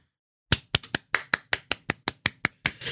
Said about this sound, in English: By the way, the saddest clap I've ever heard. no, no I clapping. I, I held it away and I did a quick one because I didn't want it to overwhelm the microphone.